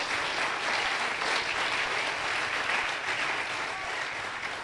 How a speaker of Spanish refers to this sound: que aplauda el pueblo de Dios.